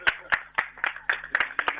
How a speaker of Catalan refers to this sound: Eh, Donar-li les gràcies al Club d'Atletisme Gavà, que ens ha portat aigua. Un aplaudiment per Club de d'Atletisme Gavà